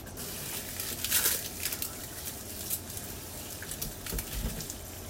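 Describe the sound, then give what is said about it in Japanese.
A steady, hissing stream of water running from a kitchen tap while cooking, with faint splashing and pattering as it hits a sink, continuous with no voices. “水とかもね流していきますので、まあ、環境音として 苦手でなければお聞きいただければなと思いますでは水を流していきますね”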